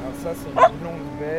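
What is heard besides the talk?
dog barking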